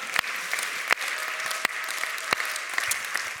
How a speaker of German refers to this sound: Hey, und ich dachte mal hier in Nürnberg, komm mal, wir geben mal all den anderen Leuten mal einen Riesenapplaus, dass die uns hier bis nach Ansbach und nach Erlangen und nach Hause hören.